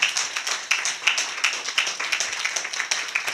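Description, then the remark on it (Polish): A crowd applauds steadily for a performer who has just played, many hands clapping in a dense, bright patter at moderate loudness, with no one speaking over it. “Zabijcie dla niego brawa jeszcze raz, który grał.”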